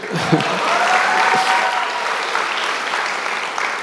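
A crowd claps steadily for about four seconds, a dense, even patter of many hands at a loud, constant level, with no voices standing out.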